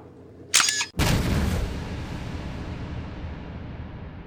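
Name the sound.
explosion sound effect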